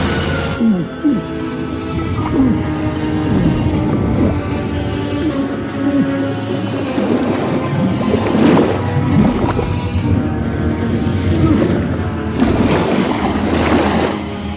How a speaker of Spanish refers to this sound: ¡Atrás, toda! Las aspas del motor se ponen en marcha mientras Murph comienza a perder el conocimiento bajo el agua.